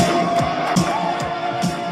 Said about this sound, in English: But I hate the crowd noise.